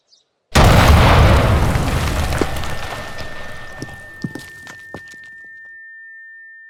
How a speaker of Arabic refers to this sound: احنا كمان شوي حنقصد القنبله حتكون كبيره جدا